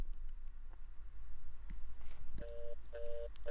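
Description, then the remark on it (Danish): A telephone sounds in the middle of a mixtape song in which the singer sings about her telephone: three short, steady electronic tone bursts in quick succession near the end, clear over a low, muffled background hum, with no talking. “Der kommer telefonen, kan du høre den?”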